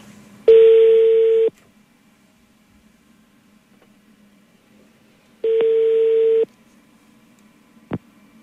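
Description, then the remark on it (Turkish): A telephone ringback tone sounds twice, each steady beep lasting about a second with a long silent gap between them, followed by a short click near the end over faint background hum. “Bir dakika bir arayalım bakalım.”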